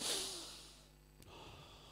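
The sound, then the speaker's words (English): A single deep breath in and out, a breathy rush of air, fairly loud at first, fades away into near silence, with a faint click afterward. No one speaks. “take a deep breath.”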